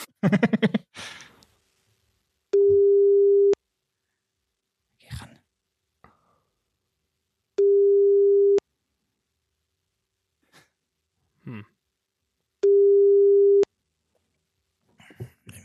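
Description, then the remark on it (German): Three long, steady electronic tones of about a second each, separated by gaps of a few seconds, a telephone busy signal on a call that is not answered, with short breathy sounds and a sneeze-like burst in between. “will keiner mit dir reden”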